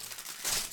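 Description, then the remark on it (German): A short burst of aluminum foil crinkling, a soft, dry crackle that swells briefly in the middle before settling, heard alone without any talking. “Die Alufolie gibt es ein bisschen, aber ich glaube, das geht.”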